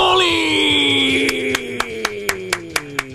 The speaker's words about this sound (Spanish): Fuerte aplauso.